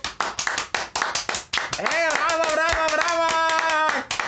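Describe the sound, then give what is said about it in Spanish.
An audience breaks into brisk, steady applause at the end of a program, a dense patter of many hands clapping; after a second or so, a loud voice calls out over the continuing claps. “¡Vos pues aplausos, matos.”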